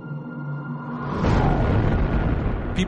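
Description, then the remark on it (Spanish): A low steady hum gives way to a huge explosion in the sky over a remote part of Siberia, Russia, on 30 June 1908, the Tunguska event, seen by people hundreds of kilometres away: a loud deep roaring rumble that swells suddenly and keeps rolling, with a brief crackle near the end. “Gente a cientos de kilómetros ve esta gran explosión en el cielo.”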